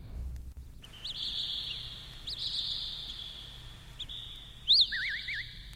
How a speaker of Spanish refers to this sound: En la versión rock, el pájaro es interpretado por …, improvisando con los teclados de esta manera